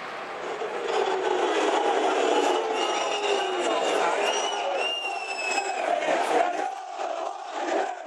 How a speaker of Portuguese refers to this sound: 36 minutos do primeiro tempo e a torcida do Arsenal revoltada com a arbitragem com a não expulsão do Kovacic.